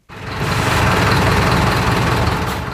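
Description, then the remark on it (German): Steady low rumble of car engines idling in a long traffic jam on the motorway from Tel Aviv, about 20 kilometres before Jerusalem, Israel: a dense continuous drone with no voices, holding evenly for a few seconds. “Etwa 20 Kilometer vor Jerusalem beginnt ein quälend langer Stau.”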